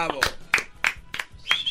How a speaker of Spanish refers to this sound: Bien, un aplauso para ti, brother.